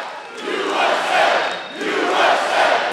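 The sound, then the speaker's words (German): A large crowd at a Donald Trump rally in a school sports hall in rural Iowa chants "USA, USA" in loud, rhythmic unison, the voices swelling and dipping in steady waves with a booming, echoing roar. “USA, USA, schreit das Publikum.”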